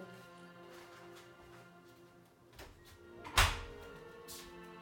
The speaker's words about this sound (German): Erstmal wie jede Folge die Tür zu machen.